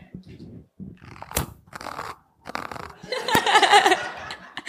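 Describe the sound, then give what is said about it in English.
A voice imitates a fingernail scraping across fabric: a series of rough, raspy scratching bursts, irregular and stop-start, ending in a longer, louder, harsh hissing scrape. “They heard bangs, they heard scraping sounds that they described as a nail going against oh. the fabric. That horrible sound.”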